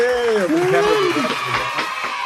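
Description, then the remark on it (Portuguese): An applause sound effect: a burst of crowd applause with cheering and rising whoops, loud and steady for a couple of seconds, the voices sliding up and down over a dense wash of clapping. “salve de palmas.”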